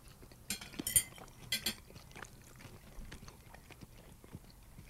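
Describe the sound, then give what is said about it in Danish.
Crunchy chewing of crispy salmon skin: a few loud, crackly bites in the first two seconds, followed by softer, irregular munching noises with no talking. “det er skind, det er næsten som flæskesvær.”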